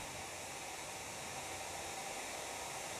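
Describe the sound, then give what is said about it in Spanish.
Steady rain falling with no letup, a soft, even hiss of countless drops filling the background, fairly quiet and continuous, with no voices. “Y de repente, este sonido de la lluvia me vuelve a traer a ese bosque verde”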